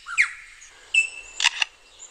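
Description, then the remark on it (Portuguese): A lyrebird mimics a camera shutter: a whistly swoop, then a sharp mechanical click-whir and two quick clacking bursts, clear with no talking. “That was a camera shutter.”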